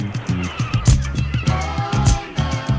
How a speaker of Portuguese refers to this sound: o som das gaivotas, enfim, né?